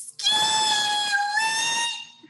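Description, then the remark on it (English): An AKA (Alpha Kappa Alpha) sorority sisters' greeting call: one long, shrill, high-pitched vocalized note held steadily for nearly two seconds with a slight waver, loud and unaccompanied, then cut off abruptly. “AKA sisters have their own greeting. You may be hearing it a lot on the campaign.”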